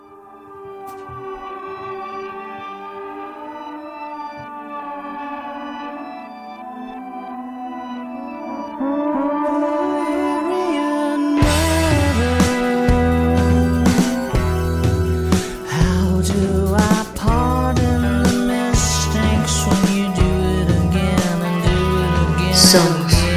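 A song opens with soft, sustained melodic tones, then a full arrangement with a pulsing bass and steady beat enters about halfway through and carries on, louder and denser.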